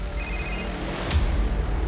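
A mobile phone rings late at night with a short electronic tone lasting about half a second, followed by a brief click over a low, steady background rumble.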